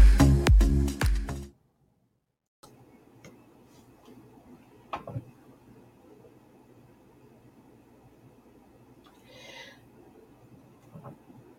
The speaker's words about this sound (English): I'm sorry, I'm fussing with the mic.